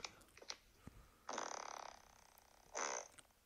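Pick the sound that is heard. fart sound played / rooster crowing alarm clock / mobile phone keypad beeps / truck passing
fart sound played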